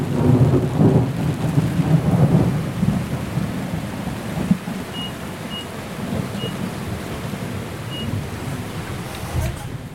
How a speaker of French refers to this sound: Bon ben voilà, le grain est passé. Et du coup, il n'y a plus trop de vent. Dans le grain, il y a, 30 nœuds. Et puis, 5 euh, minutes après, il n'y a plus que 10 nœuds.